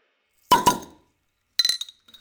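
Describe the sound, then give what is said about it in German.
Beer glasses clink together twice in quick succession in a toast, bright, spilling beer, followed after a pause by a lighter rattle of glass with a thin ringing tone. “Oh Gott, wir haben überall Bier hingespritzt.”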